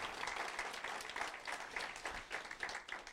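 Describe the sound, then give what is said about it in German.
A crowd gives a strong round of applause for the people at home, many hands clapping in a dense, continuous patter that holds at an even, moderate loudness throughout, with no voices rising above it. “Und ich möchte uns bitten, dass wir den Leuten zu Hause einen kräftigen Applaus schicken.”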